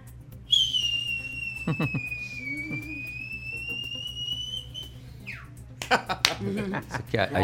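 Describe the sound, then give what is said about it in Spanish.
A voice mimics a whistling firework, a 'silbador', with one long, shrill, steady whistle lasting several seconds, dipping slightly in pitch, fairly loud, with brief bursts of talking before and after. “silbadores.”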